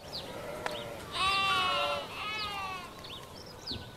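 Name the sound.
sheep bleating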